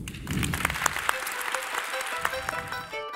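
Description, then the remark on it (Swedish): An audience claps steadily for a few seconds, a dense, fairly loud patter of many hands with no one speaking over it, applauding Environment Minister Åsa Romson. “Miljöminister Åsa Romson, mina vänner, en applåd.”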